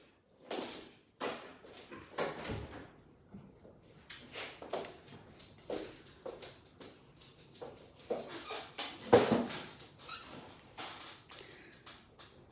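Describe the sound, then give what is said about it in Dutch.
A door is opened and handled to let a small dog in, with a busy series of irregular clicks, knocks and thumps, a sliding rattle and one louder bump near the end, and no voices. “Dan ga ik even ondertussen mijn hondje binnenlaten.”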